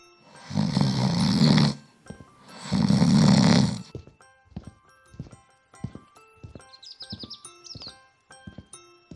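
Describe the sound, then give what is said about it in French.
Two loud, drawn-out rasping snores, about a second each, from a wolf asleep in a bed, followed by a rhythmic clip-clop of hooves and a few faint bird chirps in the background. “Sa voracité satisfaite, le loup retourna se coucher dans le lit et s'endormit bientôt, ronflant de plus en plus fort.”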